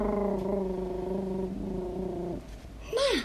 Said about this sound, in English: She was so pleased that she purred.